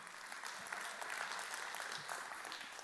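An audience claps steadily, many hands producing a dense, bright patter of applause that holds at an even level throughout without any voices standing out.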